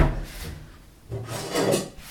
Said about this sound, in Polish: Teraz dla towarzystwa leciutko pokroję im cebulkę drobniutko.